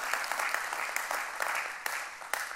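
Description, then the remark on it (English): A crowd applauds steadily, a dense wash of many hands clapping with a few sharper individual claps popping out, sustained at an even level throughout with no one speaking. “I really hope that as many of us you clapped, the next time you face a problem, you are just as encouraged that your God is bigger than that problem.”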